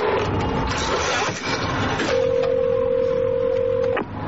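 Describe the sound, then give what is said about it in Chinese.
A telephone being dialed to call the front desk to get someone to fix the air conditioning: a low, steady rumble runs throughout, then a single sustained phone tone sounds for about two seconds before cutting off. No one speaks. “折腾了一番之后，麦克已经是浑身大汗了，于是他打电话给前台，想找人来修空调。”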